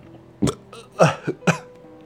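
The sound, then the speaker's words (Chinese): Several sharp, abrupt hiccups from someone who has drunk some alcohol, three or four in quick succession at slightly uneven intervals, each a brief breathy catch with a voiced jolt, heard alone without talking. “喝了点酒哈，有点打嗝。”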